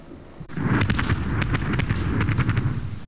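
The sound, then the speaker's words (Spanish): Fireworks explode in a dense, rumbling barrage, with sharp crackling bursts and deep booms piling on each other for about two and a half seconds, loud and continuous with no voices. “Fuegos artificiales”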